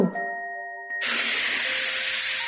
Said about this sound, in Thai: เงยหน้าขึ้นสูดหายใจเข้าเร็วๆ สามสี่ครั้ง แล้วหายใจออกทางปากยาว